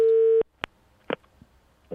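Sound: telephone ringing tone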